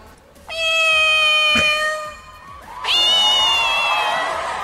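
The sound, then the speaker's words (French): A woman on stage imitates a cat's meow in two long, loud, sustained cries, the second starting right after the first with barely a pause, with no talking. “Elle dit qu'elle aime les chats et elle dit à quel point elle, est bien euh, capable de, recréer le miaulement d'un chat.”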